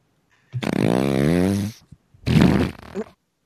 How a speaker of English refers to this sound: oh man, that was deep. That was a live in studio miked up queef.